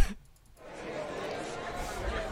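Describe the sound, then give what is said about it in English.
A brief pause gives way to a steady murmur of many voices chattering at once, a moderate, continuous crowd babble with no single speaker standing out, from the crowd at an awards ceremony. “Oh, okay, okay, the crowd. Okay, you guys stop talking.”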